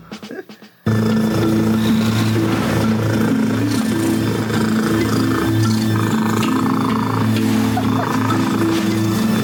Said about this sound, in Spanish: Porque ayer eh, se dio a conocer que en el Reino Unido hay un gato que rompió el récord mundial Guinness del ronroneo más ruidoso. Ruidoso, no largo.